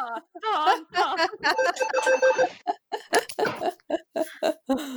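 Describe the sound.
A phone rings with a short burst of steady electronic ringtone tones, fairly loud, mixed with people laughing and talking around it.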